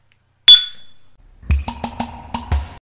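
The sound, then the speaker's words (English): A single bright clink of glasses in a toast rings out and fades, followed by a quick run of hollow, rhythmic glugging pulses as another glass of beer is poured. Fairly loud, with no talking. “Pour me another glass from Beer 52. Cheers. Cheers.”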